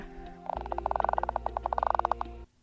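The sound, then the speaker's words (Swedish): A toothed whale's creaking click train, a rapid series of sharp, evenly spaced pulses that speed up slightly, heard clearly over a steady low rumble, with no voices. “Likt många artister så använder sig tandvalar som delfiner och kaskelotter av något som kallas knarr.”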